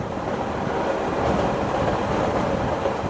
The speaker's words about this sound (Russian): А это звук поезда.